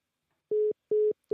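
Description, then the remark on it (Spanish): A telephone line tone after a caller hangs up: three steady, evenly spaced electronic beeps pulse on and off in a quick rhythm, clear with nothing else. “Joel llamó y colgó el teléfono”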